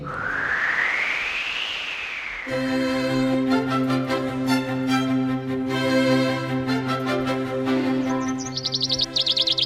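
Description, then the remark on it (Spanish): A rising whoosh gives way to a loud, dense chorus of many birds chirping and singing together, ending with rapid high-pitched trills. No one speaks. “Oh, qué de pájaro.”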